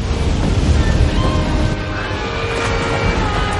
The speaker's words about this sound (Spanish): En el salón el agua arrastra a los pasajeros que se quedaron. El señor Guggenheim, sentado en un sillón con una copa de coñac en la mano, mira asombrado la masa de agua que avanza hacia él.